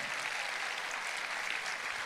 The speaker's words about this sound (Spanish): Dele un aplauso al Señor.